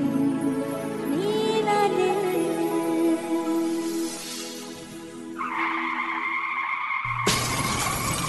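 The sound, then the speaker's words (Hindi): A car's tires squeal in a long, loud skid, then the car crashes with glass shattering and debris scattering, ending in a sharp impact. No one speaks. “We hope this never happens to you. If it does, trust your car to the pros at Auto Techies”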